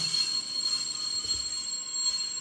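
A train pulls in and stops with sustained, high-pitched metallic wheel squeal ringing steadily over a low rumble, loud throughout, with no talking.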